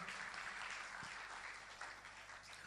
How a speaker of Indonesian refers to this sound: Yang setuju katakan amin. Yang setuju tepuk tangan buat Yesus sama-sama.